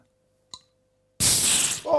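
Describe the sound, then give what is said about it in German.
A beer can is cracked open: a small sharp click from the tab, then a loud rush of fizzing hiss that carries on for about a second. No voices. “Lass mal knacken, mein Lieber.”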